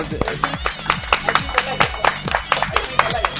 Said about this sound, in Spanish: Palmas, palmas, hermanos, palmas.